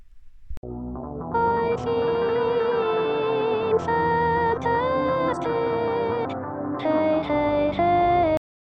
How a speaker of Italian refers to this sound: un brano che qualche anno fa terrorizzò YouTube, poi cantato, si può dire cantato, da un manichino.